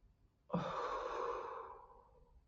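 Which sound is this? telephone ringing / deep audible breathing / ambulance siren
deep audible breathing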